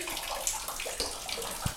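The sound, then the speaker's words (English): Water runs and splashes steadily from an overflowing washing tub at home, left running while washing clothes, a continuous hiss with small gurgles and drips throughout, not loud, with no voices. “Hey, Mom, the water is leaking hear it?”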